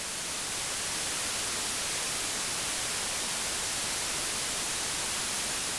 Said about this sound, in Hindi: traffic construction या किसी ऐसी एक्टिविटी के चलते आपको सोने में दिक्कत होती है तो वाइट नॉइज आपकी मदद कर सकती है चाहे किसी ऐप पर या अपने ब्लूटूथ स्पीकर पर या हेडफोन पहनकर वाइट नॉइस ऑन शोर शराबा गॉन